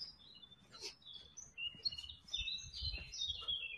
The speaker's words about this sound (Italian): Cioè, sentire questo profumo quest'ora del mattino questi uccellini che cantano.